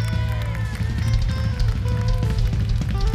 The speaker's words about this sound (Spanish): Fuerte ese aplauso.